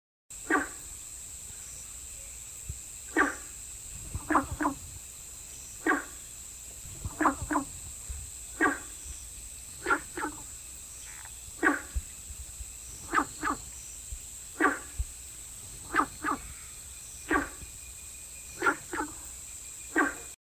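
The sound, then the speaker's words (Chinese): Günther's frog, a common lowland marsh frog of Taiwan also called the dog frog, calling from the water: short, dog-like barking croaks repeated irregularly, about twenty over the stretch, some in quick pairs, over a steady high insect drone with no talking. “那我们接下来就来听听看这个很像狗叫声的贡德氏赤蛙的叫声吧。”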